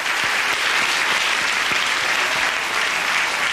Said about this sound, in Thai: นี่กลุ่มหกเหลี่ยมนะครับ คนหกเหลี่ยมอ่ะคนเลือกหกเหลี่ยมครับ เป็นคนทำอะไรแปลกๆท้าทายและครีเอทีฟขอเสียงปรบมือให้เราหกเหลี่ยมครับ